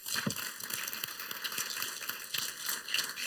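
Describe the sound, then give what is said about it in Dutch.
An audience applauds warmly to welcome a lecturer giving a lecture on Dutch colonialism in the Dutch East Indies, a dense, steady patter of many hands clapping that holds for about three seconds without any voices over it. “Mag ik voor jullie een warm applaus.”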